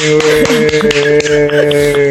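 A burst of hand clapping from several people welcoming a guest, sharp irregular claps running steadily for a couple of seconds over a sustained tonal hum, with no one speaking.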